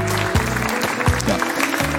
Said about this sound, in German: Herzlich willkommen zur Fotos Show. Und hier ist der Witz, den ich machen wollte. Ein Applaus